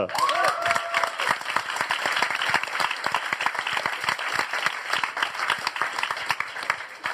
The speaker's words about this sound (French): Applaudissements pour Daz.